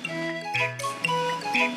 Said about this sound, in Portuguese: E a resposta correta é. Um assobio, claro.